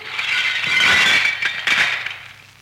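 A car crashes into an oak tree in a row of trees: a loud, crunching smash with shattering, tinkling glass, several sharp impacts within about two seconds, then the debris rattles away. No one speaks.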